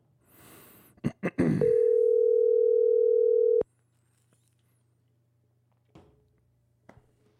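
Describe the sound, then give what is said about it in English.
A steady, loud telephone dial tone hums for about two seconds after a few quick handset clicks and rustles as a call is placed to bring another caller into a merged call, then cuts off abruptly, leaving near silence with faint clicks. “Gonna, you're gonna cut off for a sec while I call right. him in, so you won't hear me for a little bit, and then I'll merge you together.”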